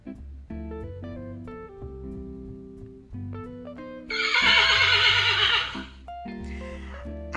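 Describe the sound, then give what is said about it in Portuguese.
A loud horse whinny, shrill and quavering, bursts in for about two seconds over a bouncy instrumental tune that plays before and after it; the horse is on a farm. “Nesta fazenda tinha o cavalo,”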